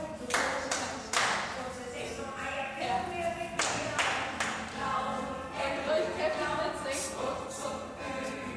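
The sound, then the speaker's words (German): Several sharp, uneven hand claps from a group ring out in scattered bursts over about eight seconds, mixed with ongoing voices talking underneath; a group exercise session clapping on an instructor's cue to open the arms and clap once. “Öffnen und einmal klatschen.”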